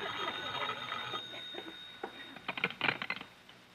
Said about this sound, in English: Shall I answer the phone, boss? No, I'll get it.